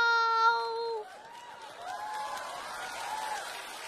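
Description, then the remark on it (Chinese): A sustained sung note ends after about a second, then steady audience applause carries on with scattered cheers and whoops rising over the clapping at a moderate level. “我跟你说吧，得了吧，底下鼓掌都是你亲戚。”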